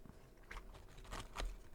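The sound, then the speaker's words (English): Wet mouth sounds of someone chewing a burger, with a few soft smacking bursts spaced irregularly over a low background hum; no talking. “So It was going to be the lowest viewed episode because of us chewing.”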